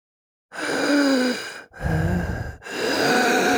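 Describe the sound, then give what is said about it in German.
A voice imitates a dying person's labored breathing: three long, raspy gasping breaths in close succession, loud, with brief pauses between them and no words. “Da atmet noch einer.”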